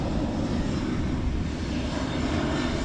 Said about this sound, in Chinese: 一辆华 华航的飞机， 没错。